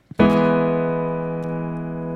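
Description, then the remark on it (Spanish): A single E major chord is struck with full force on a small studio keyboard while the pedal is held, and rings out loud and full for about two seconds, fading only slightly, after a faint click just before it. No one speaks. “Es ese acorde, un mi mayor.”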